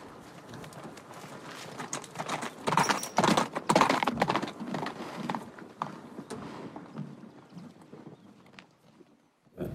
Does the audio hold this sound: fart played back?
no